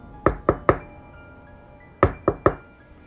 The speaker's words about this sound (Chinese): 就在我手准备打开门栓，冲出门外的那一刻，那诡异的敲门声再次响起。不过这回相比上次更加的急促，敲击力度也更大一些。